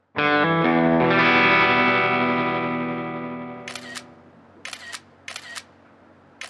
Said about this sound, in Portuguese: O que é que ela tanto fotografa? Já não posso ouvir aquela merda. Ela está-se a fotografar a ela própria, pai. São selfies.